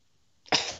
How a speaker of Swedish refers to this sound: Prosit.